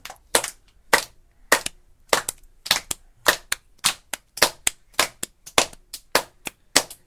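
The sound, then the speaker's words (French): Hands slap down heavily on a surface in a steady run of about eighteen loud, sharp, evenly spaced thumps, with no talking. “Elles tapent. Comme un éléphant.”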